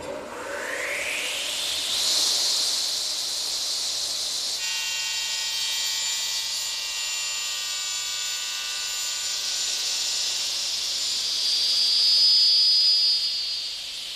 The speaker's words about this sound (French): L'un d'entre eux se charge aujourd'hui de scier du bois.